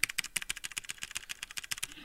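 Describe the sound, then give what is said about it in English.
Rapid, steady clicking of mechanical keyboard keys, with sharp bright clacks in quick succession like fast typing, around eight to ten strokes per second, no voices. “The mechanics of the keyboard are designed to have an input sound every single time they're clicked”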